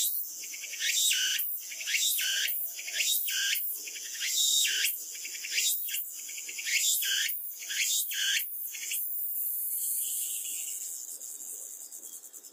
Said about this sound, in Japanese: 次につくつくぼうしです。つくつくぼうしの鳴き声はつくつくぼうしと言っているように聞こえます。つくつく帽子は夏の終わりに泣きます。ああ、もうすぐ秋が来ますね、とわかります。